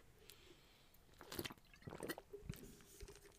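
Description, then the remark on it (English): Someone takes a drink of water: a few quiet, wet gulps and swallows spaced about half a second apart, with no talking. “Drivers who have not yet won this season who might have a chance at winning as I take another drink of water.”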